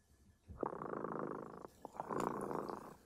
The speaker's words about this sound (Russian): Слышите? Кот Тремота запел свою песенку.